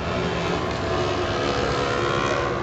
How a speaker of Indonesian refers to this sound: Emang di Bandar Lampung banyak motor-motor kayak gitu ya